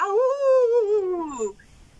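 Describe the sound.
A person howls in imitation of a dog or wolf, one sustained wavering cry that rises slightly then slides downward and fades after about a second and a half, fairly loud.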